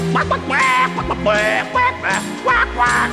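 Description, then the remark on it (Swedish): A duck quacks in a series of about five nasal, buzzy bursts in quick succession, set against steady instrumental music with a low bass line. “Och gården skulle jag ha ankor och höns, ja fåglar och djur av alla slag skulle fritt få simma och skutta runt”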